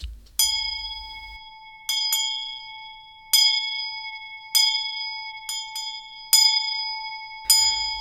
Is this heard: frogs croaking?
no